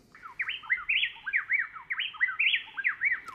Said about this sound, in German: Das sind zwei Zaunkönige aus Ecuador, Kastanienrückenzaunkönige, und zwar ein Männchen und ein Weibchen.